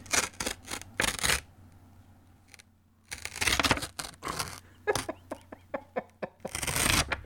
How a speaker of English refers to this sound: He finally grabs the green thing and he rips it off painfully slowly. Like like this is what it sounds like.